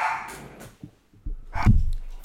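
A dog barks a few times in short, sharp bursts with brief gaps between them, moderately loud, with no talking over it.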